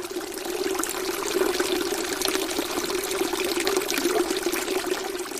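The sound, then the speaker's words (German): Water streams steadily from a thin pipe at knee height on a house wall into a trough below, a well used as a water source, a continuous splashing pour with a bright resonant tone, no voices present. “An einer Hauswand fließt auf Kniehöhe das Wasser aus einem dünnen Rohr in eine Art Trog.”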